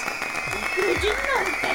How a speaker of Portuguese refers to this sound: Aplausos!